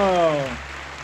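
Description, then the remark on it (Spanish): Brief burst of clapping, a crowd-like applause texture that a voice briefly speaks over at the start and that continues alone at steady moderate loudness. “Bueno, aplausos”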